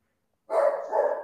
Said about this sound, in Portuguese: que você tá latindo aí? Sai daí. Sai daí. Sai daí. Sai daí. Sai daí.